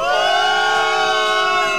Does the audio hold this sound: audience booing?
yes